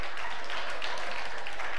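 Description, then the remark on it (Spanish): A crowd breaks into dense, sustained applause after a joke, many hands clapping at once in a steady wash of sound from start to finish. “O sea, aplaudís el chiste y no verdades teológicas.”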